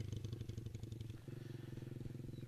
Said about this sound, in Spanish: Esto es una moto que está pasando.